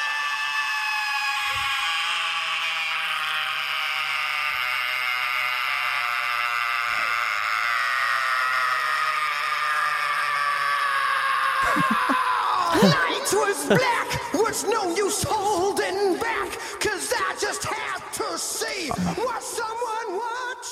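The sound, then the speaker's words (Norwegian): A new rock band vocalist's high-pitched scream, isolated, recorded in a studio, holds a piercing sustained note for about twelve seconds before breaking into ragged, distorted vocal bursts. “det er noe med det skrikene der. Ja. Jeg har aldri hørt det isolert før”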